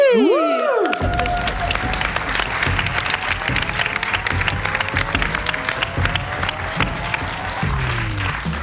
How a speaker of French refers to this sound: Et, on peut vous applaudir